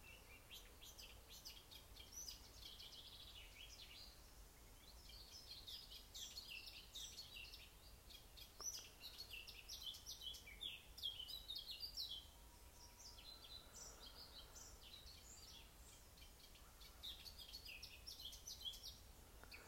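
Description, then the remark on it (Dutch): Birds sing continuously outdoors, a mix of bright chirps and warbling phrases from several birds over a soft, steady ambient hiss, with no voices. “Terwijl de vogels hier zo prachtig zingen.”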